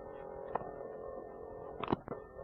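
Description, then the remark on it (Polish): A steady mechanical hum and whir of a dictaphone's tape mechanism runs throughout, with a few brief clicks and knocks near the start and toward the end, quiet, with no one speaking. “Niestety nagrywanie takimi dyktafonami, jak zapewne wiele z Państwa, wielu z Państwa pamięta, miał taki problem, że nagrywał się dość duży szum mechanizmu, można było temu zapobiec, dołączając mikrofon zewnętrzny, co zaraz zrobię.”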